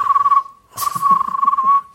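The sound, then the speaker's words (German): A person whistles a bird-like call, a steady high tone that warbles and trills in quick pulses, pausing briefly before a longer fluttering stretch; no one speaks. “Was wäre denn dein, achso, was wäre denn dein Lockruf für deine Vo das, Vogelpfeifen? Das?”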